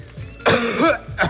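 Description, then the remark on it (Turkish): A loud, drawn-out cough with a rough, voiced rasp that stretches for about half a second, followed shortly by a second, briefer cough burst. “Öksürüğü peki nasıl uzatabilir mesela?”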